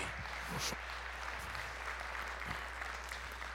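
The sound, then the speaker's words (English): A church audience claps in steady, sustained applause, giving a hand clap of praise to God, a dense wash of many hands lasting throughout with no voices standing out. “Somebody give him a hand clap of praise in here today.”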